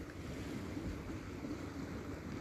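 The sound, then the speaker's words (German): A steady, continuous wash of sea waves against a small stone jetty after sunset, with low wind rumble underneath and no distinct individual breakers standing out. “Ich sitze am Meer, die Sonne ist schon untergegangen und links vor mir auf der Mole, auf dieser kleinen Steinmole”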